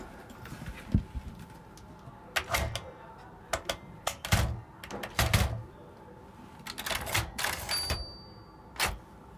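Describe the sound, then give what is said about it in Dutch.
A typewriter sound effect being recorded: rapid, irregular typewriter key strikes clack in bursts, crisp, with a brief bright bell ding near the end; no one speaks. “Uh, eh, typemachine effect. Ten. Ten eerste het belletje.”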